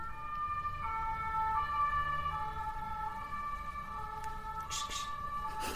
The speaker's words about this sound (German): Krankenwagen.